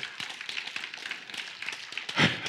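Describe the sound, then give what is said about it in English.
An audience claps together, a dense, steady patter of many hands with a brief louder swell near the end, and no voices stand out. “Everybody clapping but married people.”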